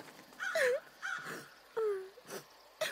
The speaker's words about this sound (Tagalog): Sir Jimmy, may umiiyak! Sa classroom mo nanggagaling, ma'am.